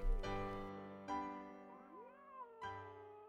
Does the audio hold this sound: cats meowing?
yes